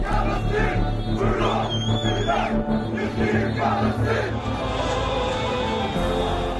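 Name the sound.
protesters shouting slogans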